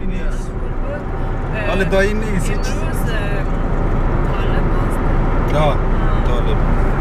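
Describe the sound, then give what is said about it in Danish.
Dense road traffic heard from inside a moving car on the road into Kandahar, with vehicles going in all directions and all lanes: a steady engine and road rumble fills the whole stretch, with honks and passing vehicles rising over it and voices in the mix. “Alle kører i alle retninger, i alle spor. Men alligevel finder trafikken sin egen helt særlige rytme, og vi stryger afsted ind mod Kandahar, hvis lave bebyggelser rejser sig foran os.”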